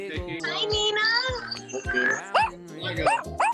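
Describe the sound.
A dog gives several short, sharp barks and yelps in quick succession, mixed with overlapping voices and chatter of friends at a virtual happy hour on a Zoom video call.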